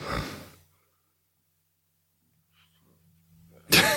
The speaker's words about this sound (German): Und wer gähnt jetzt schon?